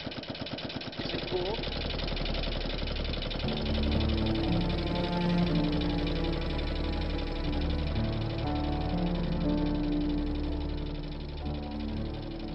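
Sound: motorboat engine running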